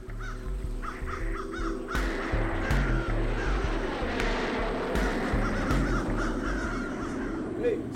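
Several crows caw in repeated harsh bursts while eating a dead seagull on a runway, over a constant low rumble, with a few sharp clicks scattered throughout.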